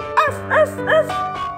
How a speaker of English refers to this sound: 快说话！大家听，Maxie barked loudly。Maxie 叫得很响。